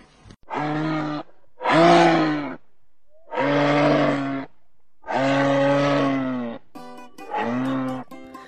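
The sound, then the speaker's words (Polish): A moose calls five times in a row, each a loud, drawn-out, low bellowing moan about a second long, separated by short pauses, with nothing else in the background. “Wszyscy zastanawiacie się pewnie, co chciał wam powiedzieć Łoś.”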